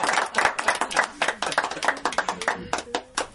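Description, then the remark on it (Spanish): Audience applause for two local artists from Mira as the program closes with music: many hands clapping in a dense, steady patter of sharp bright claps that carries on for a few seconds at a fairly even, moderate loudness. “para quien quiero pedirles nuevamente, les brindemos un fuerte y cariñoso aplauso, por favor.”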